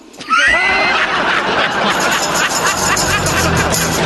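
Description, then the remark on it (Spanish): A loud horse neigh rises sharply at the start and trails into a long, shaky whinny, with a dense wash of crowd noise and background babble underneath throughout. “Y en eso bajo salió mi papá y me dijo, hijo, te dije que me trajeras un caballo, no un burro.”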